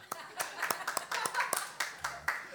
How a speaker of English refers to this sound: Come on, put it up if you got a real Bible. Give those people a clap.